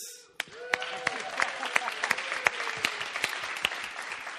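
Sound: audience cheering and applauding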